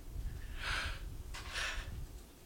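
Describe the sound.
Two audible, breathy breaths as a speaker demonstrates how one breathes: a deliberate exhale followed by an inhale, each lasting about half a second, with no talking.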